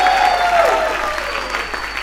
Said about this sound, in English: Come on, let's give God an abundant hand clap. Come on, not a golf hand clap. Come on, an abundant hand clap in Jesus' name.